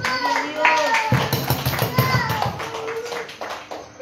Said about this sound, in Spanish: A su nombre será gloria. Dele palmas a Jesucristo.